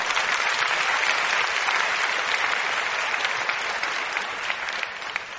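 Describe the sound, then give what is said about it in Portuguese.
A large crowd applauds a young man called a hero, urged to clap louder. It is a dense, sustained wash of clapping that stays loud throughout and tapers only slightly near the end. “Pode aplaudir mais forte.”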